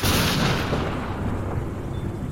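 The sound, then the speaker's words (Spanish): A loud, booming thunderclap bursts at the start with a bright crackling edge, then rolls on as a sustained low rumble that slowly fades, during heavy rain in the early hours before dawn, with no voices present. “En la madrugada empezó a caer una fuerte lluvia y un trueno despertó a la muchacha e iluminó la recámara por unos cuantos segundos.”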